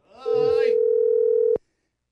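A steady, mid-pitched telephone dial tone, heard while placing a phone call, holds for over a second and cuts off abruptly, with brief muffled voices heard at its start.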